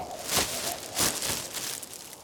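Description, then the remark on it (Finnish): A plastic garbage bag crinkles and rustles as a person settles into it to sleep in the cold, with two louder crackling bursts amid a steady, softer scratchy rustle. No one speaks. “Ja kyllä, rapistelin sen jätessäkin siihen samalla, kun joku herää ja miettii, että mitä helvettiä minä oikein teen, ja nukun sitten siinä jätessäkissä loppuen.”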